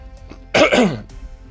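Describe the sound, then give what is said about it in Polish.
A single loud throat clearing before a new part of an interview, lasting about half a second, a rough guttural rasp with no speech around it, set against a faint low background hum. “Tak, tak, chrząknięcie przed nową częścią.”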